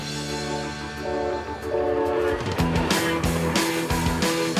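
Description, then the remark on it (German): At a railway station, a train's sustained, chord-like horn tone holds steady, then loud rhythmic clacking of wheels over rail joints rises beneath it, with no one speaking. “Schon am Bahnhof stehen Omas Schlange, um uns ihre Wohnungen zu vermieten.”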